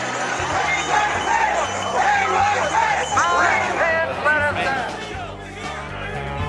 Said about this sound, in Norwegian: Ja, det var lyden av amerikanske revolusjonære som prøvde å storme kongressbygningen i USA eh, i fjor eh, for å få omstøtt det lovlige valgresultatet